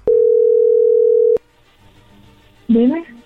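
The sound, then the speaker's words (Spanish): A single loud, steady telephone ringing tone as a call is placed, one sustained mid-pitched burst of over a second, followed by a quiet pause and then a brief voice as someone answers. “Ahí le estamos marcando. Ok, vamos a llamarle.”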